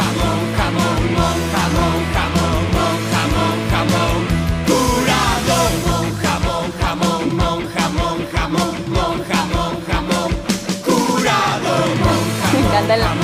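A loud, driving pop-punk song plays throughout, with distorted guitars, pounding drums and energetic shouted group vocals over the full band.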